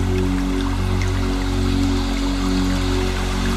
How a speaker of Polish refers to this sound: niech ten mały strumień spływa z jednego progu skalnego na drugi.